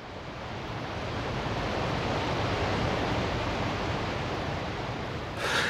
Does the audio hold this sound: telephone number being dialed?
no